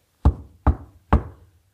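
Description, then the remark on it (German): Three firm knocks on the wooden front door of a house, evenly spaced, each with a short resonant decay. No voices. “So klopfte jemand an die Haustür”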